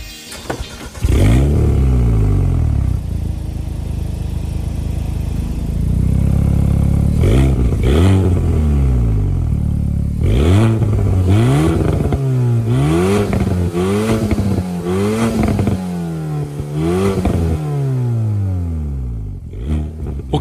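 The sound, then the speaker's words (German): An Alpine A110 French sports car engine starts and revs repeatedly, rising and falling in sharp throttle blips with a deep, raspy tone, loud, no voices over it. “Heute und äh, wir starten traditionell mit dem Sound dieses Autos.”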